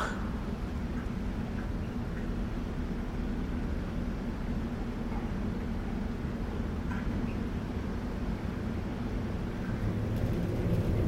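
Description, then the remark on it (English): A service elevator descends with a steady, deep mechanical rumble and hum that holds evenly throughout, a constant droning noise with no voices. “Service elevator over there.”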